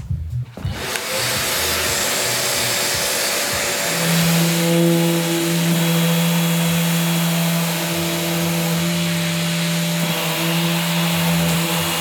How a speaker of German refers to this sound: Die schleifst du jetzt erstmal, dass sie auch an sich schon schön glatt ist und man sich keine Splitter mehr einreißt. Und ja, genau. Erster Step, jetzt schleifen.